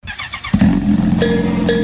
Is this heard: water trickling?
no